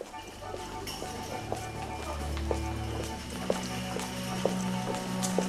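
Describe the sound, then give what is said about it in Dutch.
Steady footsteps walk at an even pace, each step a crisp, regular tap over a low, continuous background rumble, with no voices. “Moet best wel lang lopen.”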